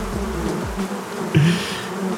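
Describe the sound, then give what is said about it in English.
A steady, dense buzzing of many bees in a bee yard fills the air, with one bee droning louder for a moment before the swarm hum settles back to an even background. “I was listening in the bee yard.”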